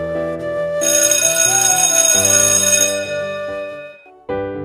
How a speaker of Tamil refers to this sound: இந்த கிளாஸ் முடியவே கூடாது அப்படின்னு நினைக்கிறீங்க கரெக்டாக பெல் சவுண்டு கேட்குது